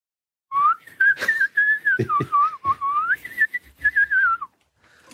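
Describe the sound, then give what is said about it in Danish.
A person whistles an imitation of a greenfinch's song: a wavering, trilling high-pitched line with quick warbles and slides, lasting about four seconds with a few breathy clicks underneath. “øh, den, der hedder grøn irsk.”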